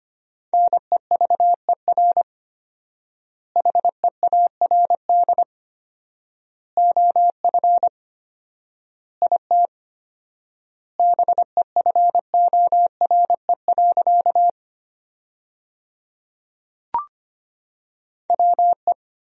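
Morse code beeps at a brisk 25 words per minute with 4x word spacing, sending sentences from the top 400 words: a single clear pitched tone keyed in rapid dots and dashes, sent in bursts separated by long silent pauses between words.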